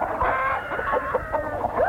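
Several hens cluck continuously as they are fed, their short, overlapping calls rising and falling in a busy, chattering stream with no talking.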